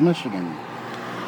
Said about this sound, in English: The sound you hear in the background is traffic going by on Northwestern Highway in Farmington Hills